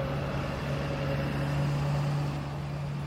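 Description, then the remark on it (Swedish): A car engine idles in a steady, low drone with a faint tonal whine, holding an even, unchanging level for a few seconds, with no voices, while a man sits working in the car on a day in early December. “Och en dag i början av december när han sitter i bilen och arbetar så får han ett sms.”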